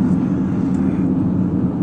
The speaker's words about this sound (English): I was thinking while I'm sitting here in the driver's seat of my car with various traffic going on around me in front of me and everywhere else